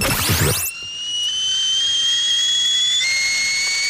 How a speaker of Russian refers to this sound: Чайничек. Чайничек, да. Чайничек, э, чайничек на плиточке.